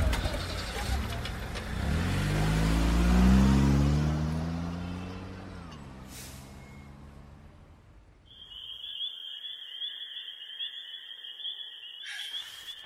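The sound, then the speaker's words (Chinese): A car engine revs and rumbles as the car is driven off to be parked, slowing with its pitch sliding down before cutting off, followed by a steady high electronic tone and a brief click. “我去停车，你买好了就到我办公室来，我等你。”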